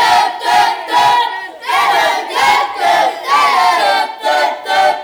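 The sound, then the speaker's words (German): A small group of voices imitates the stadium celebration when the first home goal is scored at Borussia Park against Leverkusen, shouting in loud, rhythmic bursts about six times, like a chanted cheer. “Wie hört sich das an, wenn im Borussia Park zum Beispiel gegen Leverkusen das erste Tor im Heimspiel fällt?”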